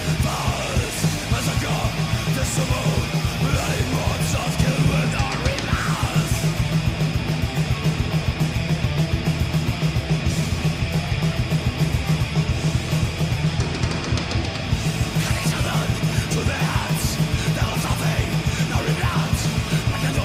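A loud, dense heavy metal track plays, with distorted guitars, pounding rapid drums and harsh shouted vocals over a constant wall of noise.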